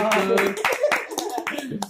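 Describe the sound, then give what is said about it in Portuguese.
A short burst of clapping from a small production crew, sharp claps scattered unevenly over about two seconds, mixed with loud overlapping voices and cheering. “Salva de palmas aí da produção.”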